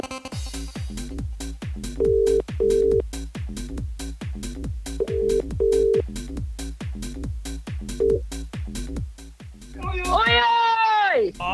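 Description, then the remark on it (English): A phone line rings out with the double-burst ringing tone of an outgoing call from a withheld number, repeating three times over a steady pulsing beat, until a voice answers at the end. “Phone, phone, You'll see a withheld number coming up.”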